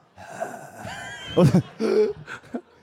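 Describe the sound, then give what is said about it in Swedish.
A voice imitates the shallow breathing of a dying person, who takes only small short breaths with the upper chest: a string of short, strained voiced gasps in uneven rhythm, moderately loud, with a couple of sharper catches toward the end. “så småningom förändras den döendes andning och blir mer ytlig.”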